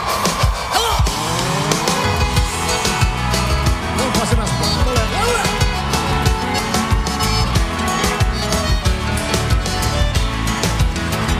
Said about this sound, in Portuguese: o carro está rugindo, parecendo fera. Voando lá em Campinas, na via Anguera.